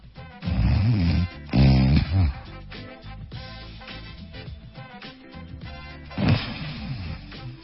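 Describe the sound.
A person imitates snoring with their voice to demonstrate a breathing pause (apnea): two loud, rasping snores close together, then a long quieter stretch like a held breath, ending in another sudden gasping snort.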